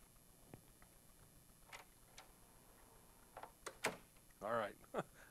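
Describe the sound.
A few brief metallic clinks and rattles, like keys jingling, come in short scattered bursts against a quiet background, with a short voiced sound near the end.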